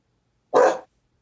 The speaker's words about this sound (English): Oh my dog's barking at someone.